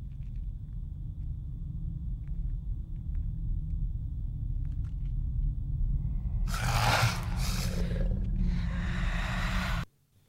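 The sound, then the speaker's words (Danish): A deep, steady rumbling growl swells into a loud, harsh lion-like film monster roar for the final few seconds, then cuts off abruptly. No one speaks. “lyder lidt ligesom en løve, føler jeg.”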